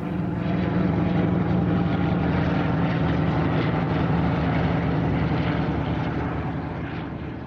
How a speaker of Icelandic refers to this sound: Síðan gerist það hérna sko 10. mæ 1940, hernamstagurinn þetta er förstudagur um nóttina, aðfarnátt förstudagsins e, e, þá heyrist í flugvél